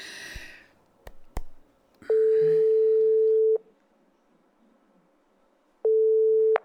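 A telephone ringback tone: a steady, clear beep holds for about a second and a half, pauses, then starts again, preceded by a couple of sharp clicks and brief rustling.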